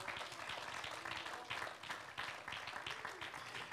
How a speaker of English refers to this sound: Hallelujah, hallelujah. Let's just give the Lord a hand clap of praise right now.